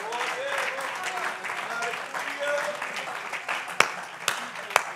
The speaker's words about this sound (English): If you believe that, can you clap your hands and shout unto the Lord?